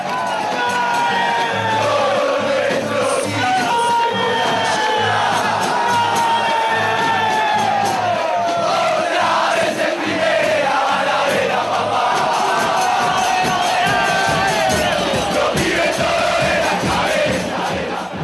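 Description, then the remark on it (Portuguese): A large crowd of football fans sings a terrace chant in unison, massed voices carrying a rising and falling melody loudly and continuously over a dense roar of background noise. “A versão da Floresta era boa, inédita e vinda de uma banda muito popular na Argentina, então não demorou muito para as outras torcidas também fazerem as próprias adaptações dessa música.”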